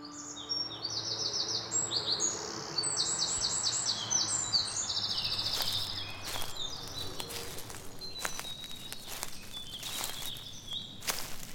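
Birds chirp and trill repeatedly in rapid bursts over open countryside fields on a spring day. Crunching footsteps pass by in the second half, with a low, steady outdoor hum underneath.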